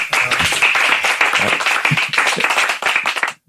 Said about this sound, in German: Jetzt haben wir einen Zusatzvortrag gemacht, nochmal 800 Plätze, auch ausverkauft. Super, Applaus dafür.